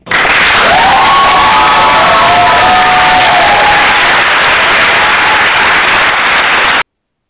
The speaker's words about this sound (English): That was my applause.